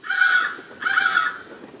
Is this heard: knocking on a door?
no